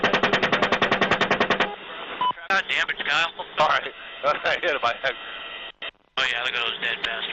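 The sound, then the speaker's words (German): A rapid, steady burst of machine-gun fire from a US military helicopter firing on civilians in Baghdad, about a dozen shots in under two seconds, gives way to tinny, band-limited radio chatter from several voices with brief crackling gaps. “zeigt, wie US-Soldaten aus einem Hubschrauber auf Zivilisten in Bagdad feuern”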